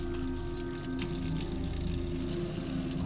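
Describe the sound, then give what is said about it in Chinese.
Cold tap water runs from a roadside faucet at night in a steady, continuous stream for a few seconds as it is used to wash a face, a rushing, splashing hiss with a low rumble underneath and no voices. “我只好走到马路边的一个水龙头那里，扭开了水龙头，用冰冷的自来水呢来洗脸。”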